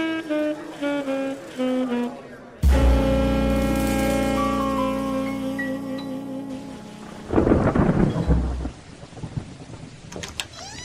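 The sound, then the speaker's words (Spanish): Steady rain hisses over the city under a soft musical intro, with a deep rumble of thunder swelling near the end before the downpour settles back to a quieter patter. “Está lloviendo nuevamente acá en la ciudad, en la mesa eh, ya que es nuestra, pero está lloviendo.”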